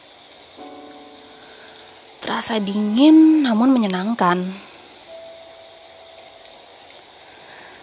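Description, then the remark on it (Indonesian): Steady, soft drizzle hiss on a wet Saturday night in Bandung, Indonesia, with a low hum of passing vehicles beneath it, while a person speaks briefly over it in the middle. “baru nyoba something yang baru dengan penambahan sound effect hujan dan suara kendaraan”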